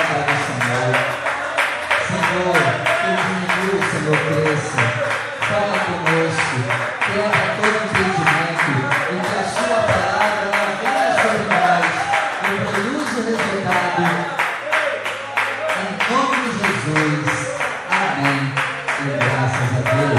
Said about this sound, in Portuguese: Feche os seus olhos, desocupe as suas mãos, coloque a Bíblia sobre o seu assento e vamos dar a melhor salva de palmas à palavra.